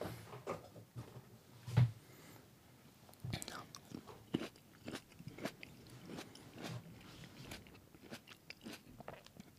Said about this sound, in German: Locker, ich höre das und denke mir so, oh, wär, wie widerlich ich einfach esse.